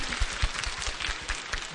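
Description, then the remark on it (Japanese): An audience claps steadily throughout in encouragement for a participant during a question segment, a dense, continuous patter of many hands at moderate loudness, with no voices standing out. “頑張ってください進展教えてください頑張ってください、はい、頑張ってエールの拍手を”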